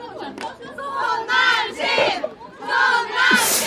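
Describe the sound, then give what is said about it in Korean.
A crowd of the speaker's supporters chants together in unison, not at a religious event, their combined voices rising in loud, sustained bursts with brief pauses between phrases, energetic. “지금 혹시 오해를 하시는 분들이 계실 수 있는데, 뭐 이런, 어, 그런 종교적인 행사는 아니고요 지금 그냥 저를 이렇게 밀어주고 또 응원해주시고 따라주시는 분들의 한 목소리였습니다.”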